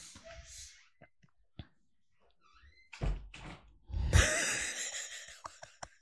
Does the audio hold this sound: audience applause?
no